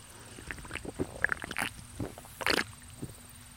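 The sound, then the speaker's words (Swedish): Someone takes a big gulp of a drink to wet their mouth while reading a story aloud, with wet slurping and swallowing sounds in a few irregular bursts, the loudest near the end, and no talking. “Det var en stor klunk.”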